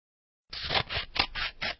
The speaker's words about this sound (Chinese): 小剪刀手中拿，大拇指注意尖，其余手指注意尖， 对准纸，张开口。咔嚓一声，剪开啦！